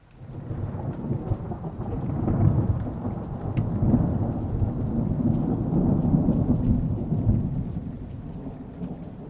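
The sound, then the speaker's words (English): Heavy rain pours steadily while deep thunder rumbles and rolls throughout, swelling in waves over about nine seconds with no voices present. “let's go ahead and get into the spoiler talk after the thunder.”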